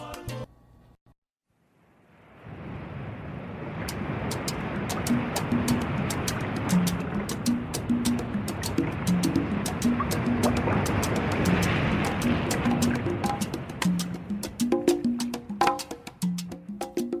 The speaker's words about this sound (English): The song starts with the sounds of the ocean